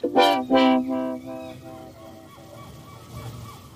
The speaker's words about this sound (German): Ja, es ist leider wirklich so, dass ich nach einer Nacht Möwengeschrei, den Punk der Möwen, nicht mehr zu schätzen weiß.